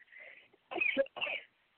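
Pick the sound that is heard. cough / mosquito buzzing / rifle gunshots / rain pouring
cough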